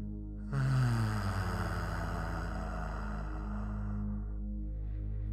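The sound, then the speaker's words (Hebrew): A steady, low vocal hum of release, voiced after a deep held breath during a guided breathing exercise, starts after a brief pause and holds evenly for about four seconds before fading out, resonant, with no talking. “והפעם ניקח נשימה עמוקה עמוקה ונחזיק את האוויר, נחזיק את האוויר בריאות ונוציא ביחד צליל של הנחה כזה.”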